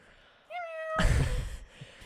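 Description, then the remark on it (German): A person does a drawn-out vocal meow, imitating a cat, followed by a breathy burst like a laugh or exhale. The voice is fairly loud, with no other talking. “Durch eine Katze oder so. Keine Ahnung. Miau.”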